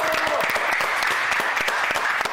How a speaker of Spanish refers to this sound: Pues venga, gracias, gracias, aplausos, muchas ¡Bravo! gracias.